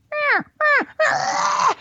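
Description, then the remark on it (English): Three nasal, mewing cow elk calls: two short ones that slide downward in pitch, then a longer, raspier drawn-out call, all fairly loud with no talking. “now he comes back, and what do I do? I call for the cow again.”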